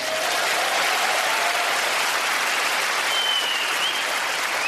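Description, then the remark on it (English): A steady burst of audience applause fills the whole moment, dense clapping from many hands at a fairly loud, even level with no one speaking over it. “Don't applaud, you never saw her.”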